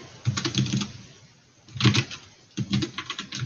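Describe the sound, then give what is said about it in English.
Rapid clicking of a computer keyboard in three quick bursts separated by short pauses, moderately loud, with no voices present, as someone types to look something up on the internet. “sorry for the clicking folks”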